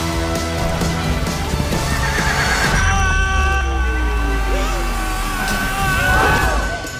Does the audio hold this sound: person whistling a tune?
no